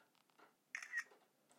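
A single phone camera shutter click sounds clear, a short crisp snap with no talking, set against a quiet background, as a photo is taken of a jar holding slime.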